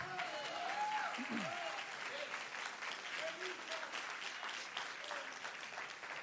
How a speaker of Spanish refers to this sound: Hay gente que dice, eh, pastor, ¿por qué están aplaudiendo las personas? Why are people clapping?